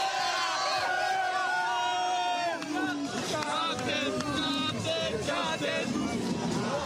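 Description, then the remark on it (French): A crowd of people imitates seagull cries together, a loud, continuous mass of overlapping high, wavering squawks and whoops rising and falling in pitch for several seconds. “Pas mal ce cri de la mouette.”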